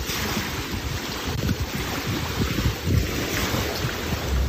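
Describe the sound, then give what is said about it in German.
Steady lagoon water washing against the shoreline, with small waves lapping continuously under a layer of wind rumble buffeting the microphone; no voices are present. “An der Lagune selber kommt man sich vor wie am Meer. Mit Wellen und allem Pipapo, was dazugehört.”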